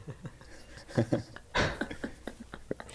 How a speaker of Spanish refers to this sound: Para que vean que los sonidos de perros, de rejas y todo eso los ponemos aquí en el estudio, no es porque sean no somos pendejos.